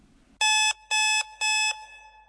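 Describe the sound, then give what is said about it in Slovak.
An alarm clock rings loud at half past three in the morning in three evenly spaced electronic bursts, each a bright, buzzy tone lasting about a third of a second, with quiet gaps between them and no voices. “Predsa len keď budík zvoní o pol štvrtej ráno, tak často premýšľate nad tým, že či teda ešte nespať”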